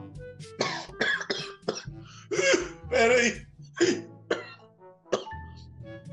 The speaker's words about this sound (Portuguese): Essa tosse não me larga de jeito nenhum.